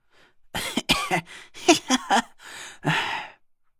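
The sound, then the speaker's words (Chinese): A wounded man who has collapsed to the ground coughs up blood repeatedly in a rough, ragged fit of several harsh bursts, some clustered quickly together, followed by a longer breathy exhale, with no speech. “等我反应过来的时候，夏风已经歪倒在了地上，不停的咳嗽着，一大片殷红的血迹沾满了他的胡子和胸口。”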